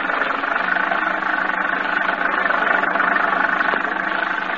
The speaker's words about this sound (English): The storm is increasing now. The muddy road sparkles in the flashes of lightning tall, dark trees swayed back and forth in the fury of the storm like moaning lost souls. The little car lurches and bounces in its fight to keep center of the highway.